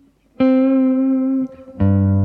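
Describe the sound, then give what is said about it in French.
An electric guitar note rings out and sustains for about a second with a very subtle finger vibrato, halfway between horizontal and vertical, then a second, lower and fuller note is struck and held. No talking. “Euh, on est, on est à mi-chemin entre le horizontal et le vertical, mais très léger, quoi.”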